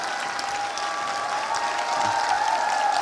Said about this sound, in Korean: 예, 봐요, 박수 많이 치니까 웃잖아. 이제 웃잖아.